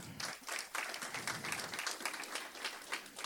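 An audience applauds a speaker after his talk, a steady, dense wash of many hands clapping at a fairly even level with no voices standing out.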